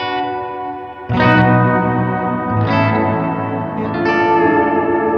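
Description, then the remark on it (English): Sustained electric guitar chords played through reverb pedals set to two different dark, moody reverbs, drenched in murky reverb, each new strum swelling into a thick, washy tail that blurs into the next; loud, with no talking. “Oh, even with the two different settings, like you're ultimately you're dialing in two different fair like fairly dark reverbs.”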